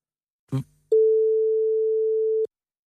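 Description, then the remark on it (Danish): A quick handset clatter, then a telephone busy signal: one steady, clear electronic tone holding for about a second and a half before cutting off abruptly. No voices. “Ja, men jeg kunne ikke lige, øh, jeg kunne ikke lige komme igennem.”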